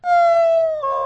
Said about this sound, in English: That's my dog when I come home.